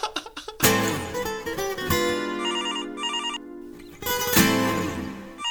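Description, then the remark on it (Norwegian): A telephone rings for an incoming call on a call-in show, from a caller phoning from Grimstad: a loud electronic ringtone with repeated bursts of bright, warbling tones and a sustained low hum, clear with no talking. “Ja, hvem er det vi har på tråden nå?”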